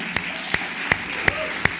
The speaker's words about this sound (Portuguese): Vamos aplaudir essa galera que trabalhou bastante.